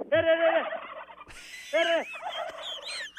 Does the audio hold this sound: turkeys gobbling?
yes